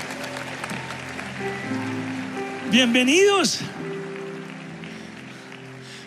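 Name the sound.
audience applauding in welcome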